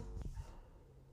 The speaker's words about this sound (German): Das ist ein Hund. Draußen.